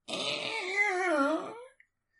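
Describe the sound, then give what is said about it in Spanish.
A voice imitates a door creaking open: one drawn-out, wavering moan with a wobbling pitch that dips and rises, held for about a second and a half before cutting off. “Vale, y la puerta hace.”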